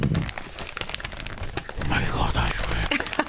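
Paper being crumpled and crinkled to mimic rain, a steady dense patter of crackling rustles with sharper bursts, mid-loud and continuous throughout.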